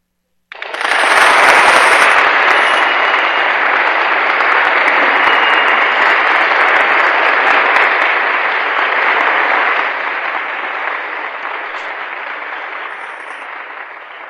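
Sustained applause from a crowd following the recital of a poem dedicated to the new year, a dense crackling wash of many hands clapping that starts abruptly, holds steady and loud, then eases slightly toward the end. No voices are heard.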